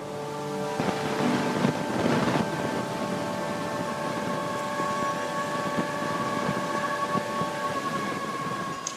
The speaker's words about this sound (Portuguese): Ele está falando desse som que vocês estão ouvindo agora, que ficava tocando no fundo da exposição dele, que chamava Pasta Sem Título. Eu fiz esse som usando gravações para dar essa ideia de cotidiano, da rua.